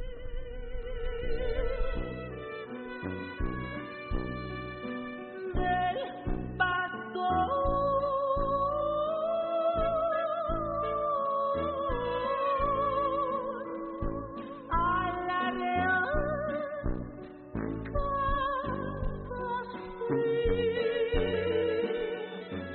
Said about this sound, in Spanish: Vaya manera de cantar es el pastor. Ahí se lo dejo un poco.